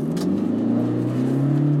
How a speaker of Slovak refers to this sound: Ej, 4500 Ale tak ide to pekne, veď to má tých 136 no. kW. To je slušné na takéto auto.